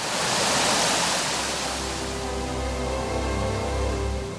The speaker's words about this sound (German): Ein kleiner Wasserfall. Wie im kitschigen Film. Und das quasi mitten in Oberösterreich.